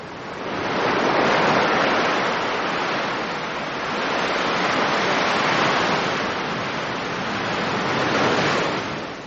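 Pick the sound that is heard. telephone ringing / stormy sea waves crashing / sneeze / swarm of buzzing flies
stormy sea waves crashing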